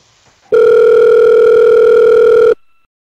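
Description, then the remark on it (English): A telephone call to someone in Texas ringing out: one loud, steady electronic ringback tone lasting about two seconds, heard over the line with faint background noise before it and silence after. “You're the technologically advanced one. Call her up.”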